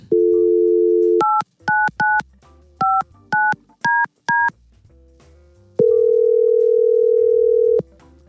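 A steady telephone dial tone as Y100 radio station hosts call a listener, then eight quick touch-tone beeps as the number is dialed, followed by a pause and a long, steady tone. Clear, with no talking.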